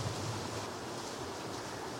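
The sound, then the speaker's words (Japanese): A heavy tropical squall during the rainy season in Malaysia roars steadily, a dense, even hiss of rain filling the whole stretch with no pauses and no voices. “すごいスコールがすごいね 聞こえるかなこれ音聞こえてるうるさいですよね今すごいねスコールが 今ねそう皆さんえー、マレーシア雨季なんですよね”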